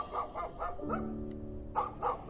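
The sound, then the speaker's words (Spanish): A dog named Toby lets out a quick series of short barks while playing with a female dog, breaks into a drawn-out whiny growl, then yaps twice more in an excited, playful rhythm. No one speaks. “Ocurrió que a los pocos meses, una tarde que paseaba Toby, un hombre joven paseaba a su perrita, y Toby no pudo evitar comenzar a jugar con ella.”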